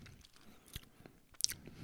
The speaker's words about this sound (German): So, bevor wir gleich zu den Picks kommen, wollen wir doch mal auflösen, wie schmeckt denn nun diese Bluna Orange. Nehmen wir nochmal einen Schluck. Ist lecker. Eine schöne Limo. Spritzig.